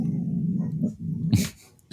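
A dog growls low and steadily, the rumble broken by a short whimpering whine near the end, with no one speaking.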